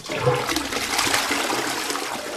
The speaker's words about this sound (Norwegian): Har du telling på hvor mange ganger du har trukket ned i do?